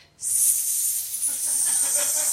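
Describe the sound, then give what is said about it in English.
A voice imitates a snake pronouncing a name with an S, one long, steady hiss that starts abruptly and holds loud for about two seconds, with no other sounds around it. “Uh, the snake's name was Tonya, but it pronounced it.”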